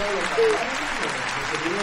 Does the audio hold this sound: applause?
yes